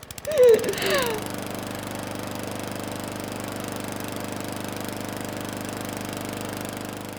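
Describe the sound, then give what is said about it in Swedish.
A snow blower engine runs as a man clears snow, at a steady, even chug after a brief louder burst at the start, a constant mid-pitched mechanical drone with rapid regular pulsing. “Titta min man slungar snö! Du bara oh babe slunga hårdare!”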